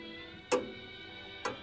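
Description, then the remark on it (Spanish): Two sharp clock ticks, spaced about a second apart, ring out clearly against a quiet, faintly humming background with no voices. “Lo más triste, caballero, un reloj.”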